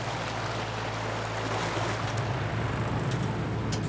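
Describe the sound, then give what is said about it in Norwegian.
A steady engine hum with a low tonal drone beneath a constant wash of water as a dive boat motors out over calm water under a blue sky, heading out toward Solsteinsundet; the rush is continuous, with no voices. “Nå er du tilbake på dykkebåten”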